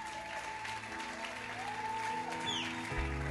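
audience applauding

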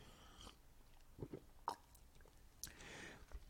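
sipping water

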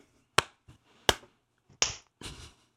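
hand clap

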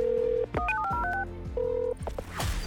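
telephone number being dialed

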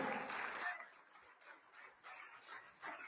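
audience applauding

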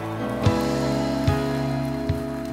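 audience clapping

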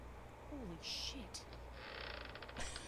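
door creaking

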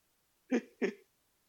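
coughing and throat clearing

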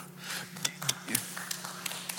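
audience clapping

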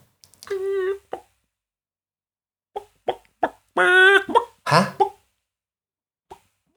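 hen clucking

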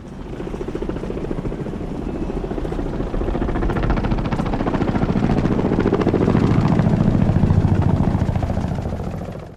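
helicopters approaching

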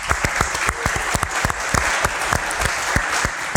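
round of applause

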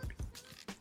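sipping champagne

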